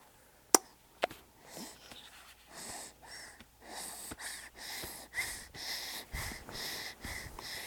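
A child snores softly while asleep, a steady run of raspy, wheezy breaths repeating about every second, after a couple of sharp clicks at the start. No one speaks.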